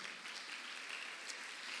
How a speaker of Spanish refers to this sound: Vamos a ver, le da palmas fuerte al Rey de la Gloria.